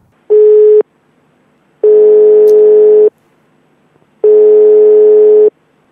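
Telephone line tones while a call is placed to Vlade on his Serbian phone number, used in the United States: three loud, steady electronic tones at one pitch, separated by pauses of silence, with no voices.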